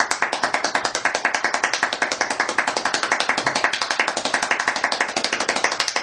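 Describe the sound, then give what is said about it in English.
Very fast hand clapping, a steady, unbroken stream of sharp claps at roughly fourteen per second, fairly loud, lasting the whole stretch with no talking. “I think we'll go for 14 claps per second.”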